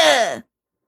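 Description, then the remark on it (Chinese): A voice imitates an old man's big sneeze, set off by a mouse's tail tickling his nostril: one short, loud, breathy burst with a falling pitch that cuts off abruptly after less than half a second, followed by silence. “老爷爷打了一个大大的喷嚏，吓得大耗子连滚带爬，一口气儿跑到门口”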